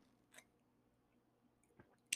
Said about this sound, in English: So I'm gonna take a sip of my coffee and then we're gonna go ahead and dive into this thing.